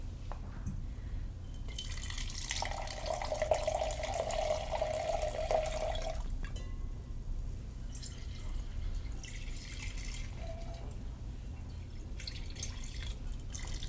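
Wine splashes steadily from a slightly raised height into a Burgundy glass for a few seconds so it touches the air, its pitch rising as the glass fills, then a second, quieter pour follows, with no talking.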